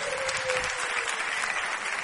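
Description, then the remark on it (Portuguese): A sustained burst of applause from a large group, applauding a group standing at the front, steady and fairly loud throughout, with no one speaking over it. “Então, para quebrar o gelo desse pessoal aqui, vamos aplaudir esse grupo bonito que está aqui à frente.”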